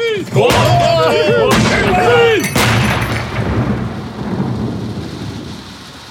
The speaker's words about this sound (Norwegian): Fyrverker! En trefoldig salutt for kolonien Godt håp!